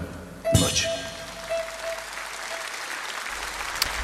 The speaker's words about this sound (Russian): Аплодисменты тебе.